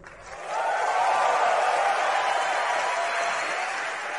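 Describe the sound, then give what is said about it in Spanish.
Applause from an audience welcoming Elon Musk swells within the first half second into a dense, steady wash of clapping that holds loudly for several seconds, easing slightly toward the end, with no speech over it. “Por favor, un aplauso para recibir a Elon Musk.”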